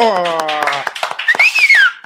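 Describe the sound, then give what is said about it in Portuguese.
A short burst of applause: scattered, uneven claps from a small group, with a rising and falling whistle over them, following a sustained voice at the start; applause welcoming two guests on a show about improvisation. “Então, você que se liga com a gente, eu vou pedir uma salva de palmas para salva de palmas para eles, eu improvisei errado,”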